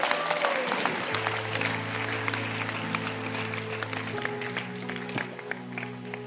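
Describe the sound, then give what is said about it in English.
A large crowd claps steadily and densely, a continuous wash of hand claps, while sustained keyboard or organ chords play underneath. “Clap your hands and maybe sit.”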